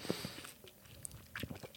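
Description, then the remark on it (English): Someone takes a quiet sip of beer, a fruity Paradise Blackberry Milkshake IPA, from a bottle, with soft wet mouth clicks and a brief swallow over a low hiss. Nobody speaks. “Uh, I'm having a little taste again.”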